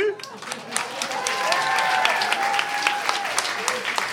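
An audience applauds to show support for a contestant in a show: dense, steady, overlapping claps at a fairly loud, even level throughout, with a few faint cheers or whistles rising above the clapping.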